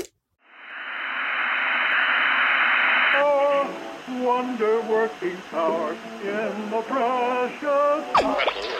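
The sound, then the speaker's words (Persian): A steady hiss of radio static fills the first few seconds, then the dial sweeps through warbling, garbled fragments of voices and tones that slide in pitch, ending with a brief squeal. “چون الان روی ایستگاه اشتباهی هستید”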